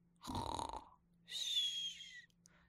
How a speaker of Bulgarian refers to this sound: си хърка неспирно.